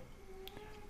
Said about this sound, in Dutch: Sorry. dat was mijn kat die gekke dingen aan het doen was.